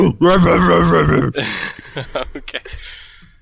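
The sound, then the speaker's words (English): A person imitates ape noises: a loud, drawn-out hooting groan for about a second, then a string of short, choppy grunts and huffs. “Except, do we understand Zippy when he when he's communing like that, or does he sound like the ape as well?”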